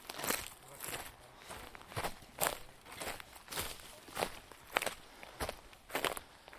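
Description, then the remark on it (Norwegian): Steady footsteps crunch along an outdoor path, about ten even strides with a gritty, gravelly texture, moderately loud with no talking, as a person walks over to check whether there is a trail. “Hvis, jeg, jeg bare, bare, la meg gå bort og sjekke her først.”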